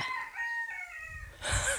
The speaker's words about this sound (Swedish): Där har vi Miles Davis, vår lilla vita ulltuss till tupp. Han vill vara med också.